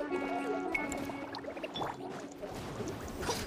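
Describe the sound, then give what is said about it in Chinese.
Water in a pot bubbles and gurgles steadily at a rolling boil, a dense crackling texture throughout, with faint ringing tones in the first second. “开锅了，开锅了！”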